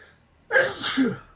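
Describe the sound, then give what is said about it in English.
A single sharp sneeze bursts out, a sudden loud explosive blast trailing into a short breathy tail, with quiet before it and no talking. “Bless you.”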